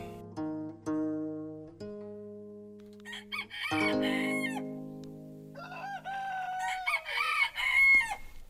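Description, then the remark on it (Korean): A rooster crows loudly, its long, strained call rising and breaking, followed by more overlapping crows and clucking from other chickens. No one speaks. “선비를 깨우는 게 닭이고, 닭보다 늦게 일어나면 참, 저, 저, 저, 참, 저 금수만 또 못한 놈.”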